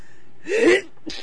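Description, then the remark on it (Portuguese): A single sneeze from a woman with rhinitis: a sharp, breathy burst lasting about a third of a second, followed moments later by a short, softer exhale. No talking. “Espirrei.”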